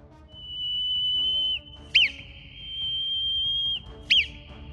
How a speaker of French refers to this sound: Maintenant que vous avez compris, écoutez bien le message et décryptez-le. Le premier sifflement.